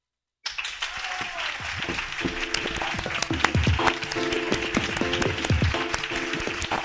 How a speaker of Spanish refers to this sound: Bueno, ¿cómo no vamos a aplaudir esto? La verdad es que sí.